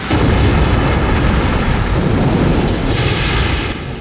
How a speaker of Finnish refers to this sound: Itse asiassa parin minuutin ajan Apollo putosi alaspäin radallaan ilmakehän rajamailla, keräsi nopeutta maan painovoimasta, kunnes seitsemän minuutin kohdalla tärinä ja jyrinä tulivat takaisin, kun toisen vaiheen moottorit ärähtivät käyntiin.